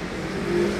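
A steady, low engine hum of a car revving up, with a rising tonal whine, over a broad wash of street traffic noise; no voices.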